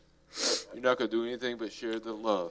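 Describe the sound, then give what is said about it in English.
A single short, sharp sneeze bursts out, and then a person immediately carries on talking. “Bless you”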